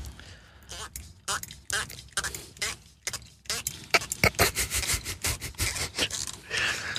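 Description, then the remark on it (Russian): A sommelier twists a wine cork off a corkscrew, a run of squeaky, rubbing creaks and scrapes, with soft voices murmuring between the bursts. “Открутили пробку со штопора.”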